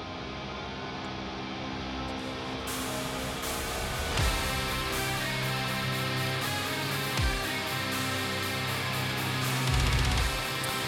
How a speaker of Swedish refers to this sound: En liten Transylvania-slinga. Melodic black metal gör mig alltid nervös.